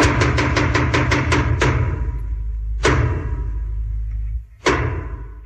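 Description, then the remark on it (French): Theatre knocks announcing the start of a show: a quick run of sharp wooden thuds, then two slow, heavy, evenly spaced strikes, all over a low, steady murmur of background noise. “Ah ben il y a le troisième qui arrive.”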